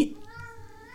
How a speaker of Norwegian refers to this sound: Det er bare katten.